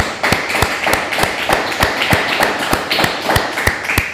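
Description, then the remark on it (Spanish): Steady, rhythmic hand clapping as applause for viewers in Panama, about a dozen sharp, crisp claps at an even pace of roughly three per second, with no voices over it. “Fuerte aplauso a Panamá.”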